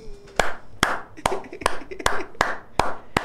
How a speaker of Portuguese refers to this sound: Agora eu aplaudi, fato.